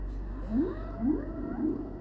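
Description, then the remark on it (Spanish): Dolphin calls, three rising, drawn-out whistling cries spaced about half a second apart, over a steady low wash of sea noise. No one speaks. “Vamos a realizar esta práctica mientras dure el sonido de los delfines y el mar.”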